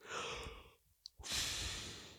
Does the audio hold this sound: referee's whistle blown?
no